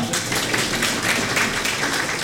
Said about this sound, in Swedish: Nu är min mamma här också. Hon sitter här. En applåd för henne.